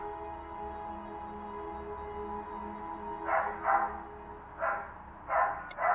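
A dog barks about five times in quick, uneven bursts during the second half, moderately loud over a steady low background hum; the first few seconds hold only the hum.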